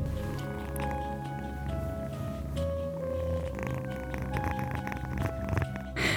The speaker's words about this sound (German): Jetzt kommt die kleine Katze. Vielleicht hört ihr sie schnurren.